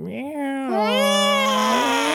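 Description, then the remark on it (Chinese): A person imitates their pet cat's long, drawn-out meow: a single high voiced cry that rises at the start, then holds steady and stretches out for about two seconds. “我家猫会那个拉长音”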